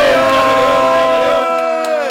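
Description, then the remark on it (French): A crowd cheers and yells loudly on cue as a shout-out, many voices blending into one sustained roar of whoops and shouts that thins out slightly toward the end. “On fait du bruit pour Papy. Fait du bruit pour Seb aussi.”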